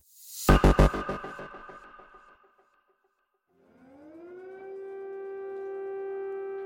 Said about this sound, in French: Les sirènes qui retentissent à Kiev, capitale de l'Ukraine, la guerre est déclarée.